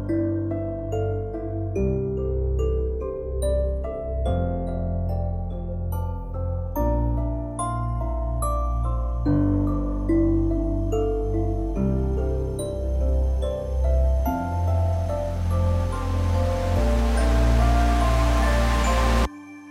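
Dark electronic film score music with sustained low synth chords and droning tones, steadily layered with gritty, noisy distortion that swells into a harsh wash toward the end; loud, no voices.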